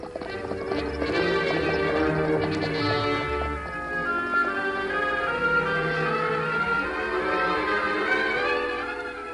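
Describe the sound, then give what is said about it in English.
Horse hooves clip-clop in a steady, rhythmic trot throughout, clear, layered with loud, sweeping orchestral music and no talking: the masked man and Tonto riding their horses Silver and Scout up a back trail to the hills. “The masked man and the Indian rode up a back trail to the hills.”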